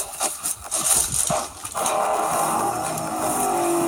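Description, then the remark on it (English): A low-pressure actuated pump sprays brightener chemical onto wood at about 50 PSI: after a second or two of irregular clunks and knocks, a steady whirring hiss starts and holds evenly to the end. “So you can hear that actuated pump working here.”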